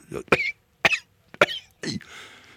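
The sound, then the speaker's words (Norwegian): A person fakes a short run of harsh coughs while handling pallets of milk, four raspy bursts in quick succession with brief gaps, the last trailing off into a breathy rasp. “Hvis det er en som har hosta godt når han driver og lempa disse pallene med melk så, ja, så, Det var tungt i dag.”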